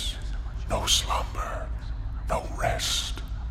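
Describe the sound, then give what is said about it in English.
Eerie whispering voices rise in breathy, hissing bursts, two distinct murmured phrases drifting over a low rumbling background, hushed with no clear words. “I quickened my steps, hoping that the sound of my footfalls in the catacombs would drown out the whispered voices which had now become so very clear.”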